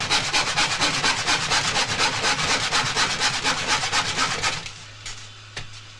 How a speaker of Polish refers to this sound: Kilkukrotnie próbuję e, przeciąć tę deskę przed kolacją, ale nigdy mu się nie udaje. Za każdym razem przychodzi żona i daje mu kanapki i on jakby odkłada tę piłę i nigdy nie, nie nawet ten jednej jebanej deski do końca nie przyciął.